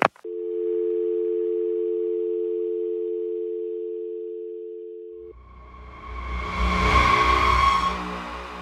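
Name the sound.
telephone dial tone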